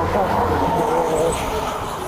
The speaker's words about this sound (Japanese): すっげえ飛ばしてますね、車が。なんか危ないぐらい。なんか喧嘩してるんじゃないぐらいね、2度。車が飛ばして、ちょっと怖、危なそうでしたけど